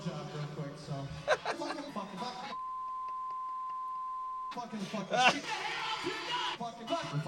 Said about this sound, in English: There's a string of fucking every curse word from whatever. And then there's a beep in the middle. Why fucking start beeping after he said fuck 10 times?